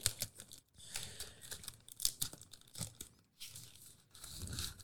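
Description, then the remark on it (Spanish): A drone being slid out of a plastic bag, with continuous crinkling and rustling in irregular bursts, some sharper crackles, and a brief pause partway through. “Ahí hablamos, con delicadeza sacarlo de la bolsita.”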